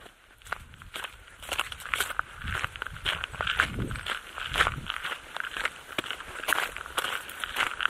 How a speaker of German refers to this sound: Der nimmt sich selbst beim Spazieren auf und, ungewöhnlich für einen Journalisten, sein Motto ist Just Walking, No Talking.